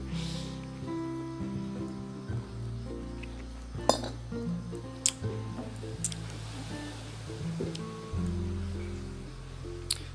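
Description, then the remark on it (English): A few light glass clinks as someone takes a sip of water, scattered over about ten seconds against a low, steady background hum, with no talking. “I am going to take a sip of water.”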